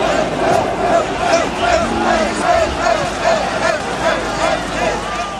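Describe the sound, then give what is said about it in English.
A large protest crowd on Molesworth Street, Dublin, at 1 pm on Wednesday 22 October, angry at the government's cut to universal medical cards for over-70s, fills the air with a dense, continuous roar of many voices, with shouts and chant-like calls rising and falling in a loose rhythm throughout. “I pay a voluntary contribution for the socialist newspaper being sold in the crowd that day.”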